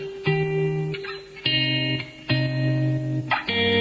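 A pop song plays loud, with bright, buzzy synth chords that shift roughly every second over a steady low bass, with no singing.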